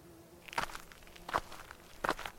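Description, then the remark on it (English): Three slow footsteps crunch through leaves and brush on a forest floor, evenly spaced about three-quarters of a second apart, fairly quiet, with no voices, as a person walks through the woods. “Each tree I walked by, I inspected.”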